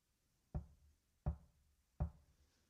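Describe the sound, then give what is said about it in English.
Three firm knocks on a door, evenly spaced about three-quarters of a second apart, each with a deep wooden thud and short ring-off, with nothing else around them. “Behold, I stand at the door and knock.”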